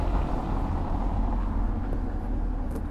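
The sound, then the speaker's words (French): A car rolls over cobblestones at the bottom of Montmartre, a steady, rough rumble with a bumpy, rattling texture that continues for the whole few seconds, with no one speaking. “Quand une satanée voiture.”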